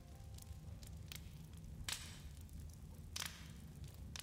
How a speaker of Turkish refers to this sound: Çevremizde son ejderhanın ateşleri hala yanıyordu. Ciyup Yuguri'yi kucaklayıp bu ateşlerden birinin içine bıraktı.